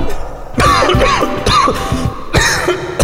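cough

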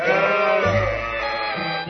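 sheep bleating

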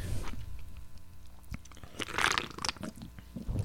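loud gulping

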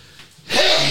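sneeze

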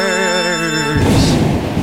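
thunder sound effect

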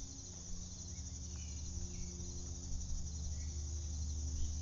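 crickets chirping

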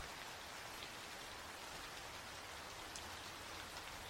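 heavy rain falling

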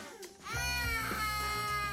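child crying

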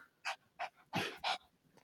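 dog panting and barking

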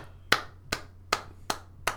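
hand clapping

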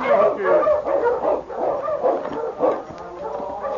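sled dog barking

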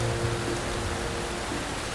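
pouring rain

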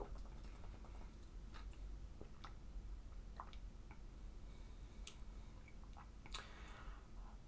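drinking water

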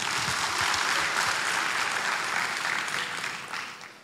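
loud audience applause

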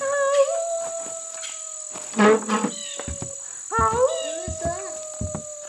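howling

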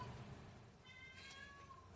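cat meowing loudly

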